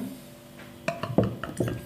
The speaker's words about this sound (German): Jetzt kannst du hier mal diese Biere einschenken.